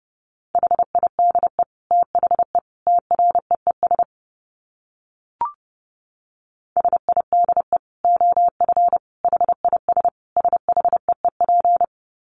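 Fast Morse code at about 30 words per minute, a single steady mid-pitched tone keyed in quick dots and dashes, running in two long bursts split by a pause with one brief click.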